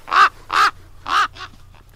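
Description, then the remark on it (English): A raven-cawing sound effect: a raven caws four times in quick succession, harsh and loud, with the last call shorter and weaker, over a faint steady low hum. “send the raven to Green Bay and tell them that a win is coming.”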